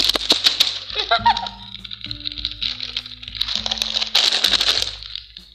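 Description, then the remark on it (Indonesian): Crisp plastic crinkling ASMR, a dense stream of sharp crackles that swells into louder bursts at the start and near the end, over a soft, steady low musical hum. “ah berisik ini dikira asmer apa ya ASMR apa kepanjangan ASMR karena aku tahu ayo kamu mau tahu nih ya guys asmer Asmar plastik crispy.”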